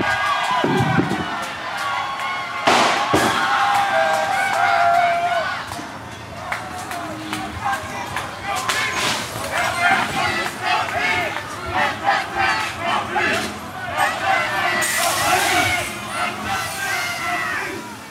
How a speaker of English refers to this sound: this big round of tear gas some started setting fire to police cars and i recorded some of it uh, there's um, bullet sounds like rubber bullets or tear gas kind of like what we were hearing earlier and there's three cars on fire people are cheering